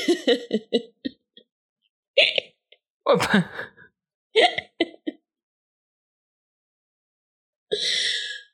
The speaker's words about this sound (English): Um, I'm burping.